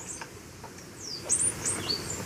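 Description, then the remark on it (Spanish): A played recording of a mountain tanager call: a few thin, high-pitched chirps and short descending whistles, clustered in quick succession over a soft, steady background hiss; no one speaks. “Tangara de montaña.”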